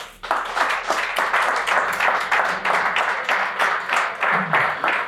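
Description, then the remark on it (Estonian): A crowd applauds steadily for about five seconds, a dense, even patter of many hands clapping with no voices standing out. “no sellega on hea lõpetada, igatahes ma palun aplausi.”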